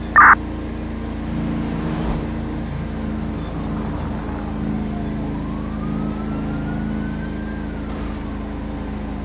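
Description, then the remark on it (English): A fire truck siren wails faintly in a slow rise and fall over a heavy, steady engine rumble, preceded by one short, sharp electronic beep at the very start. “Someone just stole my fire truck and it looks like a cop.”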